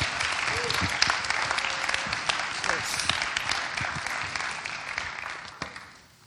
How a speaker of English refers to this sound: So, can we give her the biggest round of applause um, as she comes up?